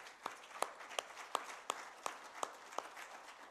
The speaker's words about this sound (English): And I don't know if anybody else is going to clap, but I'm going to clap for this church.